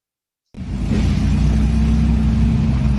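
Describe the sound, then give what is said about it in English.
After a brief silence, loud engines suddenly roar to life and keep revving hard in a steady, rumbling, powerful blast as a motorcyclist races a Porsche. “Motorcycle tries to show off. He's attempting to race a Porsche.”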